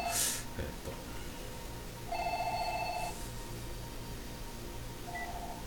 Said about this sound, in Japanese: えー、また今度は電話ですね。